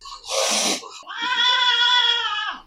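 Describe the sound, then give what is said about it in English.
A feral cat lets out a harsh, hissing screech followed by a long, drawn-out yowling meow, loud, with no other sounds around it. “Bad feral cats.”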